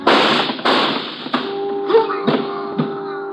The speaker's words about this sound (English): Schiller grabs at his stomach and crumples onto the pier. The shots came from my left, and I can hear someone running along the pier.